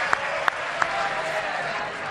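A theatre audience applauds, a dense, steady wash of many hands clapping at once, with a few sharper individual claps standing out early on; no one speaks over it.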